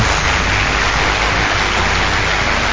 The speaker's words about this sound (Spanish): Qué lindos aplausos, qué lindos aplausos de verano.